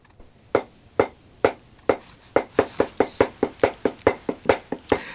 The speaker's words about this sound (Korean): 이게요. 다듬이 소리입니다. 네, 다듬이 소리.